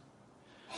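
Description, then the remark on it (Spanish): A quiet stretch of breathy room noise, then a single short sneeze that bursts out sharply right at the end, brief. “¡Salud!”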